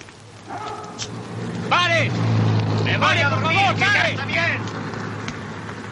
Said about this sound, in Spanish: Un taxi se aproxima.